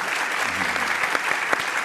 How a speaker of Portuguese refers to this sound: Para falar do imenso artista, vamos pelo caminho do afeto conversar com três amigos do Ariano: o jornalista Gerson Camarote, aplaudam,